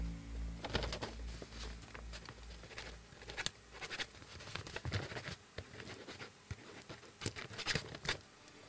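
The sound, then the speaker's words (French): Scratchy pen strokes on a sheet of parchment as someone writes on it, a steady patter of short scrapes and taps, with a low hum underneath and no voices. “tu vois Geb a sorti du parchemin. C'est vraiment, il, a une, feuille de parchemin et il est en train d'écrire dessus.”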